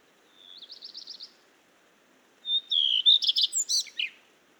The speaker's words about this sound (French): Le rouge-queue à front blanc, arrivé il y a à peine une semaine, est en premier plan. Il fait encore nuit et il chante près du lampadaire sa petite phrase enjouée.